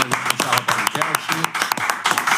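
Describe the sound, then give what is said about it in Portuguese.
A burst of irregular hand clapping, sharp and fairly loud, with a dozen or so quick claps welcoming the arriving guest Rafael Marques while a voice murmurs faintly underneath. “Palmas para Rafael Marques, que chegou”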